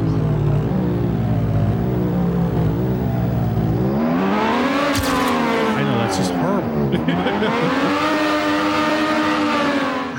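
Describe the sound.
A simulated car engine sound revs continuously, its harmonic pitch climbing and dipping as it accelerates, loud, with a brief voice speaking over it partway through.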